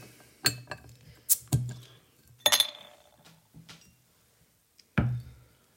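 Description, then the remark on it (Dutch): Glass bottles of Italian Birra Moretti beer clink and rattle as caps are pried off, a few sharp metallic pops and brief fizzing bursts spread over several seconds, with no talking. “Ik ga ehm, ze even openmaken.”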